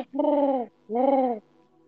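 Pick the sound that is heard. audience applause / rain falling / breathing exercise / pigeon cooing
pigeon cooing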